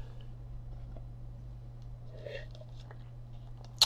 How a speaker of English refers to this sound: So I'm just going to take a little sip here.